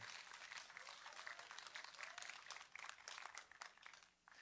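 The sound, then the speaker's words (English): A crowd applauds steadily for people as they walk out together, a dense wash of many hands clapping at once, fairly loud and sustained throughout with no voices standing out. “Let's give them a hand as they walk this out together.”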